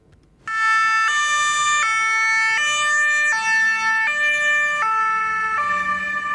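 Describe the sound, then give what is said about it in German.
The siren of a Rettungsdienst Winterthur ambulance in Andelfingen, on its way to a medical emergency, wails in a steady two-tone pattern, alternating high and low pitches roughly every three-quarters of a second, loud and continuous over a faint engine rumble, with no one talking. “So tönt Sandelfinger jetzt nicht nur, wenn die Feuerwehr aus ihrem Depot zu einem Einsatz fährt, sondern auch, wenn ein Krankenauto vom Rettungsdienst Winterthur zu einem medizinischen Notfall muss.”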